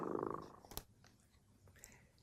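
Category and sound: animal, cat purring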